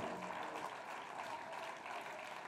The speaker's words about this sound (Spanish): aplauso de alabanza al Señor. Aleluya.